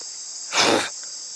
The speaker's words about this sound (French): Ah, les moustiques Attends, éclair éclair parce que j'espère que c'est des moustiques et que c'est pas des flebotomes.